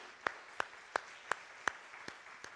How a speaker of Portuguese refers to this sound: Vamos dar uma salva de palmas a Jesus. Pode dar a melhor salva de palmas aí.